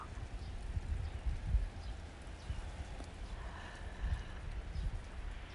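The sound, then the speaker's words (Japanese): Outdoor ambience on a sunny spring day, with gusty wind buffeting in low, uneven rumbles and faint bird chirps now and then in the background, by persimmon and loquat trees. No one is talking. “そして今私実は外にいるんですけど聞こえるかなこの風の音とか鳥の声とか車が通り過ぎたりとか”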